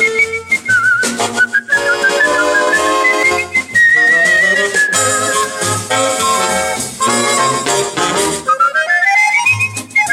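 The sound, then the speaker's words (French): A whistled melody glides and swoops through bright, sustained notes over a full instrumental backing with steady bass, playing loudly and continuously throughout; whistled music on Radio Aviva's programme Éclectique. “Eclectique, c'est une expérience inédite d'écoute, une ode à la curiosité radiophonique, emplie de montage, d'ambiance sonore et de musique sifflotée.”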